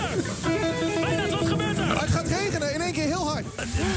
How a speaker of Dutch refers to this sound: Een wolkbreuk uh, komt hier nu over het Mediapark. Eh, Alsof de duivel ermee speelt.